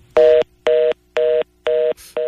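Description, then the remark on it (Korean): A telephone disconnect tone after a phone line to a Busan Ilbo reporter cuts off: a steady series of five identical electronic beeps, evenly spaced about half a second apart, loud and clear with no voices. “아, 전화가 갑자기 끊긴 것 같습니다.”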